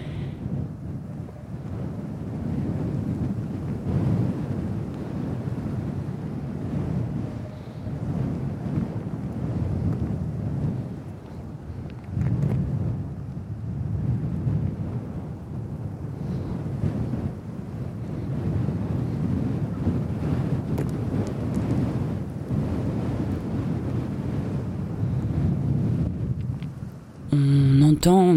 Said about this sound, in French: Il y a, pas mal de paysages sonores, notamment pas mal de vent.